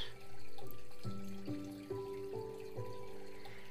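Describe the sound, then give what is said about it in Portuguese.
Steady running water streams continuously at a moderate level, with a gentle series of soft, rising tonal notes sounding beneath it. No one speaks. “Deixando a água levar isso com muito amor.”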